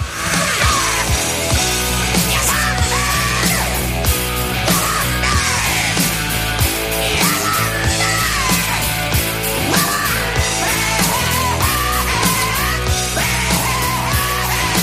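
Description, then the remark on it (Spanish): A loud, dense hard rock song plays throughout, with distorted guitars, pounding drums and a shouted, raspy lead vocal riding on top at a steady driving tempo. “cualquier canción de la banda, como esta que suena, por ejemplo, siempre es bien.”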